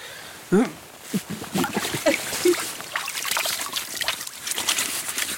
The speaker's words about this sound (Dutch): Wat horen we eigenlijk? Hier en nu. Het watervalletje dat stroomt in de verte. Focus je geluid daar maar eens Heel aandachtig op.